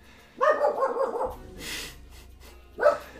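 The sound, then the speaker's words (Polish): A dog in a farmyard barks somewhere off in the distance while running around outside: a quick run of yelping barks, a pause filled with faint outdoor rustle, then one more bark. “Słyszysz psa w obejściu, gdzieś szczeka daleko.”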